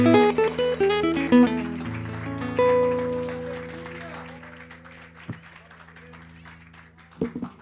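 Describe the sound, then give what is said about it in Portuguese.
A church audience claps steadily in applause to the Lord, a dense wash of applause over sustained keyboard chords that fades gradually, with a couple of sharper bumps near the end. “Dê uma linda salva de palmas ao Senhor,”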